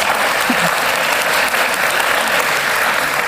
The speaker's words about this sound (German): genau, geben wir doch unseren ukrainischen Freunden einen kurzen Applaus.